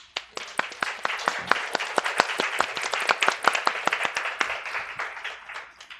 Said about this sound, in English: I'd like to invite you all um, uh, to please help us in welcoming the panelists with a round of applause.